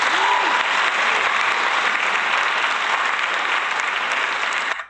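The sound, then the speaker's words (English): A loud, dense burst of clapping from a crowd, steady and sustained for several seconds before cutting off abruptly, applauding an album going diamond. “Um, just just a round of applause yeah. for that.”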